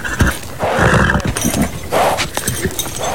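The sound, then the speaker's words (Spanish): A rebellious thoroughbred horse whinnies loudly in two agitated bursts, with snorts and restless shuffling in between. “Un caballo muy rebelde, señor. Es un pura sangre, coronel.”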